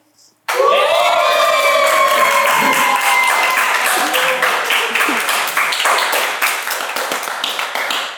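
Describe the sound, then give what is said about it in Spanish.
A small production crew bursts into loud shouting and cheering all at once, whoops rising over steady clapping that keeps going for several seconds before tapering off slightly at the end. “El día de hoy les traigo una invitada súper especial, pero antes, mis chicos de producción, griten.”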